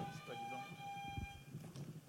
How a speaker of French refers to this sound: je vois que vous êtes très agressif sur le buzzer aujourd'hui.